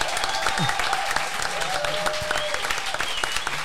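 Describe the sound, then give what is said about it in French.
Audience applause for a guest's third-place performance for Switzerland at Eurovision 2021 fills the whole stretch, a dense steady wash of many hands clapping at an even loudness, with faint scattered voices and a few whoops mixed in. “Euh, tu as fini troisième, d'ailleurs, et je tiens à ce qu'on applaudisse sa performance.”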